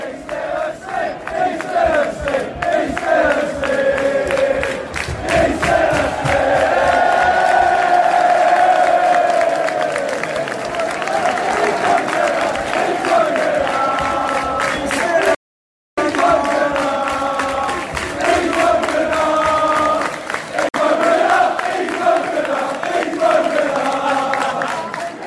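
At a football match against Southampton, a large crowd of away Baggies fans chants in unison to mock a Southampton supporter who fell asleep in the stand, a loud sustained sung refrain with rising and falling pitch, repeated over and over, with a brief cut near the middle before the chant resumes.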